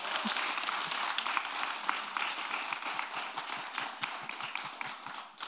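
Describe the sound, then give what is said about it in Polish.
Steady applause from a small group for women activists, a dense patter of many claps that holds for several seconds and then thins slightly toward the end. “To są wszystkie wspaniałe działaczki, brawo dla nich.”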